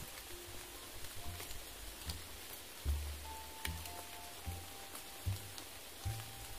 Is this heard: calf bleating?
no